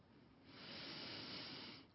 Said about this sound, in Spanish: Y después de contemplar esa luz en tu interior, arriba de ti y a tu alrededor, y enviarle tu amor y gratitud, tomas una profunda respiración.